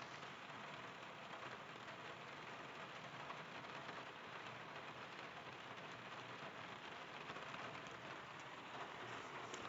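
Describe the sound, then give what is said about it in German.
Steady rain drums on a car roof and windows, heard from inside the vehicle: a dense, constant patter with no pauses, fairly loud, with no voices. “Ja, was ihr da gerade so hört, das nennt sich in Fachkreisen Regen. Und ja, ich sitze im sicheren Auto”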